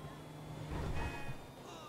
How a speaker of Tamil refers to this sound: actually இந்த electric car sound சூப்பராக இருக்குது எனக்கு ரொம்ப பிடிச்சிருக்கு